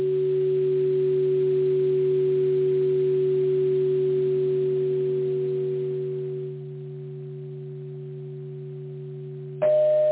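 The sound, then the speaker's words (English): Steady electronic transmission tones encoding a Fibonacci sequence of numbers hum in layered, sustained pitches, fairly loud and alone; the texture thins partway through, then a new higher tone abruptly joins near the end. “in the beginning of the transmission are a Fibonacci sequence of numbers as tones.”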